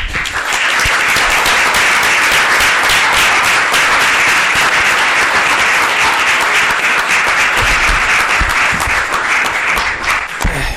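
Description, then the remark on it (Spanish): Sustained audience applause, many hands clapping in a dense, even roar that holds steady and loud for about ten seconds before starting to thin slightly at the end. “Así que os pediría un aplauso para”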